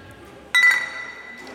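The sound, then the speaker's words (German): A single bright clink of glasses touching in a toast, followed by a clear ringing tone that slowly fades out against a quiet background. “Ich würde sagen, stoßen wir erstmal an.”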